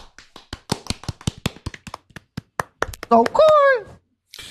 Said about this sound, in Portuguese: Palmas.